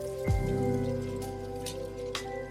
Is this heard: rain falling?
yes